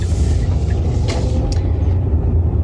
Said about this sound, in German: Ja, wir sind gerade mit dem Auto unterwegs